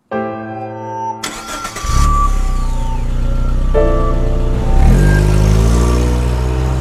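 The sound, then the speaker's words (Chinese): A car engine cranks briefly and catches, then settles into a steady loud rumble that rises in pitch as the car pulls away and accelerates, being driven straight to a hospital, with a gear-shift dip partway through. No voices. “我驾车直奔到医院时，探望的时间早就过去了。”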